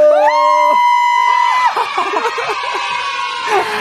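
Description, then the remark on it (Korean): A live crowd of fans roars in response to a call to shout, opening with a loud, sustained unison shout that breaks off after a second or so into a lively mix of cheers, whoops and excited voices. “소리 질러!”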